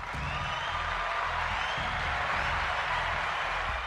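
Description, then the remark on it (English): Steady, dense applause from a large crowd fills the whole stretch, a continuous wash of clapping with a low rumbling undertone beneath it and no voices standing out. “So I gave you guys applause there. I give everybody applause.”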